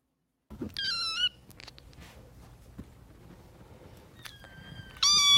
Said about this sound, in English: Here we have some foster kittens that are currently being cared for at SPCA Tampa Bay.